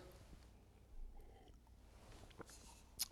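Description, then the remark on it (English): Quiet sips of water by a preacher after an opening prayer: soft slurping and swallowing mouth noises, then a brief sharp click near the end, with no one talking. “Take a sip of water here.”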